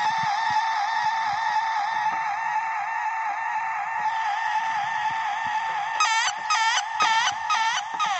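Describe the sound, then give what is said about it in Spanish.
A person imitates a duck, holding a long, nasal, buzzing call before breaking into four or five quick, wobbling quacks, loud with no other talk. “Hago como pato.”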